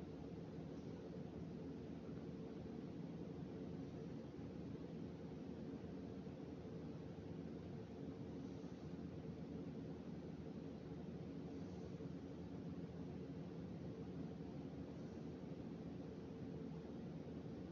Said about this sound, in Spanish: Trata de ver la naturaleza de este sonido. Yo he escogido el sonido de mi refrigerador.